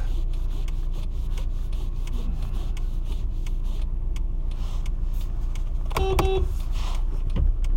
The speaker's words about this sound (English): All right, there's a, okay, it's fair enough. There's a lot of traffic. Fair enough.